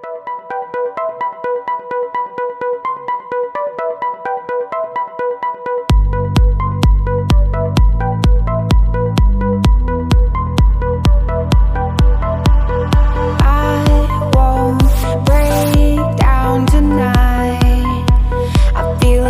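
An electronic dance track plays on a radio program: a bright, plucky synth melody opens alone, then a loud, steady four-on-the-floor kick and heavy bass come in around six seconds. High sweeps and effects build toward the end.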